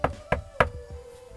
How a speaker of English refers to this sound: So cool. I go to the bedroom door. I knock on the bedroom door.